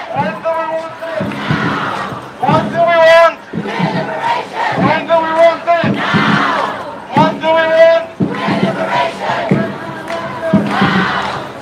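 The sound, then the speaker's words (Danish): A large crowd chants slogans in unison ("What do we want? Gay liberation! When do we want it? Now!"), loud rhythmic bursts of shouted phrases repeating every couple of seconds with brief gaps, some voices rising in pitch, over a steady murmur. “Men der bliver i hvert fald chantet, øh, what do we want, gay liberation, og when do we want it now?”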